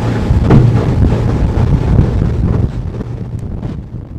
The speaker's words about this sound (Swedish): Nåja, efter ett par minuters båtfärd så är vi nu framme eh, ute på Kalvön och, och, och det där.